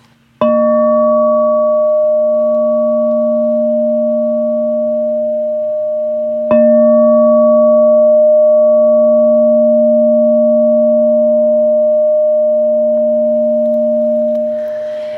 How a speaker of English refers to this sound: There's another way to play the bowl, and that's what I call chiming it or striking it.